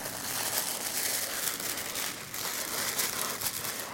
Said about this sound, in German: zieht blaue Plastikhandschuhe an und öffnet vorsichtig den weißen Karton, der vor ihr auf dem Tisch liegt.